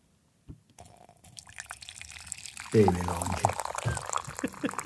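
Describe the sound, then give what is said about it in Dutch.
Herbal tea of lemongrass, apple, rose petals, mint and cornflower pours steadily into a cup for a few seconds, a rising trickle, while a person laughs and speaks briefly over it. “En dit is het geluid van een vers kopje.”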